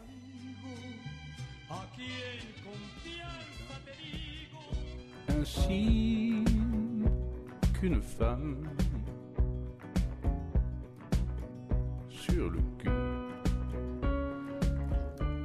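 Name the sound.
french pop song playing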